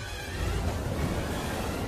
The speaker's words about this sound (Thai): โอ้ย คลื่นลมแรง อีกแล้วพวกเราระวังเข้าของในเรือด้วยนะ ข้าฉลนแล้วโอ้ยทำไมลมแรง อย่างนี้เนี่ย